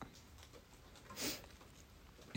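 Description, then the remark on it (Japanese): Soft, steady rain patters outside a window on a rainy morning, a quiet continuous hiss with scattered tiny drips, with no one speaking. “おはよう雨の日の朝の深呼吸やっていきましょう雨の音が聞こえる窓際に座って”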